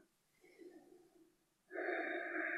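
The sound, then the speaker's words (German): A slow, soft inhale followed by a much louder, forceful exhale during a guided breathing exercise, with no one talking. “Und atmen.”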